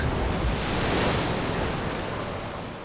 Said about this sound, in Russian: Ветер крепче становился, и забегали матросы, и, карабкаясь на мачты, развернули паруса. Волны делались все выше, застилали небо тучи, и стремительно вплотную к ним приблизилась гроза.